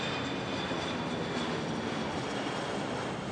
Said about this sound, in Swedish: Hon springer mot hissarna tillsammans med några kollegor men då hör de ljudet av en jetmotor som närmar sig snabbt.